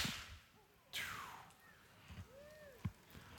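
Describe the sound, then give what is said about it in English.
A single sharp release of an arrow from a bow, a crisp snap with a fast whooshing swish that quickly fades, followed by faint scattered background sounds and no talking. “When Jeff lets that thing fly, when that arrow is released”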